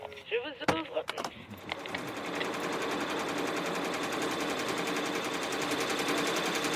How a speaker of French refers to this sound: Donc euh, là, on a une machine qui brode. Donc euh, vous voyez, on a plusieurs têtes qui permettent de broder plusieurs produits en même temps.